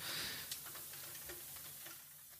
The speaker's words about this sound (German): Im Hintergrund regnet, ich weiß gar nicht, ob man das auf der Aufnahme hört.